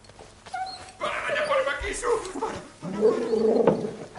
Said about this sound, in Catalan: Escoltem, escoltem primer els dos gossos anomenats Zeus i Apolo. Ah, els gossos, Dobermans.